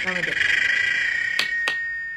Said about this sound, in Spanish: Oye, mira, está sonando la chicharra. Uh, bueno. Se acabó este programa, chao, buenas